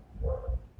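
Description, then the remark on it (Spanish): Dogs barking faintly: a short, muffled burst of barks over a low background rumble, with no voices. “Perdón el ruido de los perros.”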